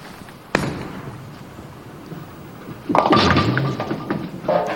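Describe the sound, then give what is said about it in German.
At a local bowling club, a bowling ball thuds down and rolls with a low rumble, then smashes into the pins in a loud, scattering clatter that rattles on for nearly two seconds, leaving a split. “Bin jetzt hier in meiner örtlichen Bowling Kegelclub”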